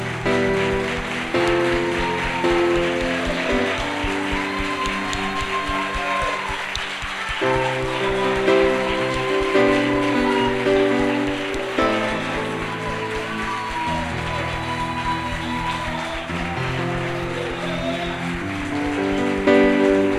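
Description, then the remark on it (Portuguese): An audience claps steadily for about twenty seconds, a dense, rain-like wash of applause over music with sustained, held chords underneath, applauding the Lord for a miracle. “Eu queria pedir a você que desse uma salva de palmas ao Senhor pelo milagre que ele fez.”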